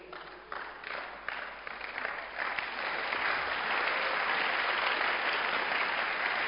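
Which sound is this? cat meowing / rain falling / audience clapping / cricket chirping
audience clapping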